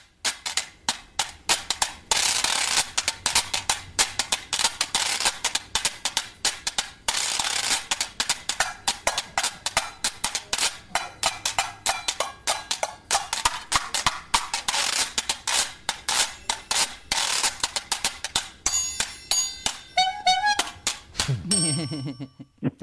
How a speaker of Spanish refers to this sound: que, es muy corto, pero que ves todas las posibilidades de la tabla de lavar eh, moderna, ¿no? La que se fabrica actualmente.